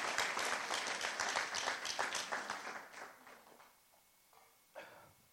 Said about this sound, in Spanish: Claro que sí, den un aplauso fuerte al Señor Jesús. Give the Lord a hand clap.